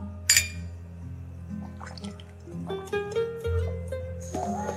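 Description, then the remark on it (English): A single bright, ringing clink of glasses in a toast to friendship, followed by liquid pouring and gurgling into a glass, its tone rising as it fills. No one speaks. “If you must go, then I'm I'm sending you off with a toast.”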